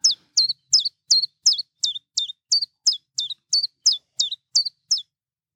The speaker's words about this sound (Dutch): Het, het is natuurlijk prachtig eh, geluid wat die Tjiftjaf maakt. En vrij eh, goed. ja, duidelijk hoorbaar. Goed te onthouden ook.